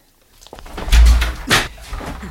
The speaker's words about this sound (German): Eine Hand hatte ihn gepackt und zog ihn hinein. Die Kellertür knallte zu. Schock!